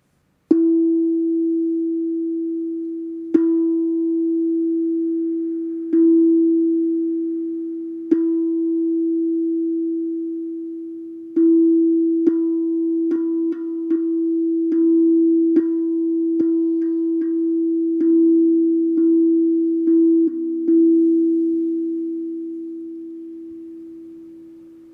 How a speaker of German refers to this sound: Hier habe ich einfach einmal das E. Ich spiele dir das gerne. Spür in dein Solarplexus Chakra hinein. Stell dir auch gerne vor, wie sich die Farbe Gelb ausbreitet in deinem Solarplexus Chakra, währenddem ich den Ton E spiele.